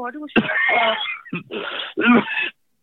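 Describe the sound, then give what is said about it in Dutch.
A person deliberately demonstrates a deep, chesty cough as if it came from the lungs: three harsh, rough bursts in quick succession, fairly loud, the first one longest. “Terwijl, als het echt, echt vanuit je longen zou komen, dan zou het meer zoiets zijn van”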